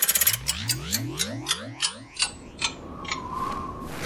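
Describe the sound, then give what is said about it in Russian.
An old clock ticks in steady, sharp clicks while warbling, sliding tones sweep beneath it like time spinning backward, the effect fading into a faint hum with no voices. “Старинные часы, время назад!”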